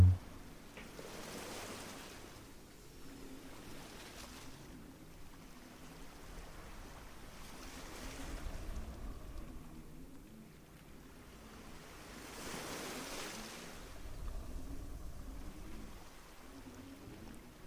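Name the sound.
ocean waves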